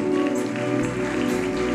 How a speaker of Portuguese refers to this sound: Nós aplaudimos o teu nome, Jesus.